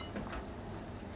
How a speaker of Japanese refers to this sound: はい、であとは焦げつかないようにたまにかき混ぜながらで様子を見ながらぐつぐつ煮込んでおります